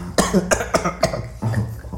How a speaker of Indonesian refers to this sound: Karena di neraka banyak asap, batuk dulu.